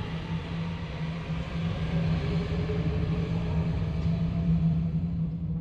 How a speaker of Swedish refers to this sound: Milslånga tunnlar, vars tystnad bara bryts av tågens dånande.